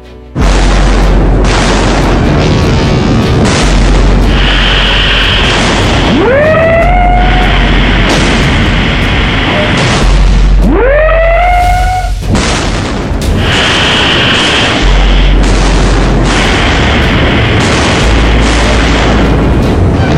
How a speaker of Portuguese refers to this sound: Ao avistarem a frota aliada, deram início à troca de disparos com seus pesados canhões e disparos de torpedos. Era o início da Batalha do Mar de Java.